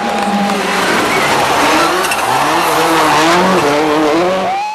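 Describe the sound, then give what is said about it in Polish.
A Group A Subaru Impreza rally car engine roars, its pitch climbing and dropping through gear changes with a rough, crackling edge. It stays loud and continuous throughout, with no voices. “E, natomiast no już tutaj, tutaj zniknął ten charakterystyczny dźwięk, co było oznaką doskonałości układu wydechowego”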